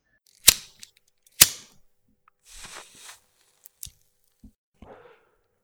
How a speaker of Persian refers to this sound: سیگارم رو روشن کردم